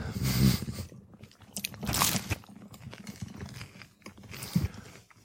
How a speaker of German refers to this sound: Ich schneide das auch einfach nicht raus. Wie wir hier die ganze Zeit nur am Kauen sind.